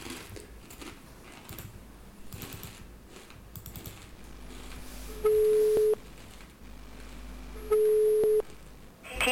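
Quiet clicking of a phone dialing Telekom directory assistance, then two long, steady telephone ring tones about two seconds apart, fairly loud, with faint background noise between them.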